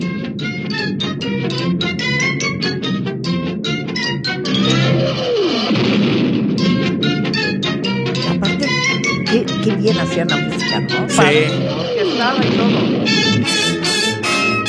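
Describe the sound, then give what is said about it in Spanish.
Brassy, bustling theme music of the old cartoon Rocky Bullwinkle plays loud and steady, punctuated by two falling, whistle-like swoops and busy percussive hits, with a voice briefly saying a word over it. “Esta caricatura la pasaban aquí en un combo que era Super Can Rocky Bullwinkle, El Gato Klondike.”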